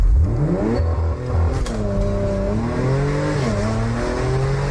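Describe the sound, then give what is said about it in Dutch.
A Porsche Macan engine revs loud, its growl climbing and dipping through several throttle blips over a steady idle rumble, with no voices. “De Porsche Macan.”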